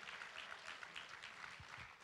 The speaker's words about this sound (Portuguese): Quem pode aplaudir o nome daquele que nos ama. Será que alguém pode dar um aplauso de verdade aqui nesse lugar?